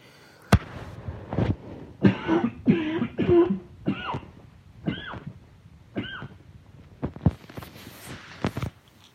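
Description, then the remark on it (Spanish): A series of harsh coughs and throat-clearing bursts, irregular and repeated over several seconds, with short pauses between them and no speech. “Un segundito que ahora sí voy a toser.”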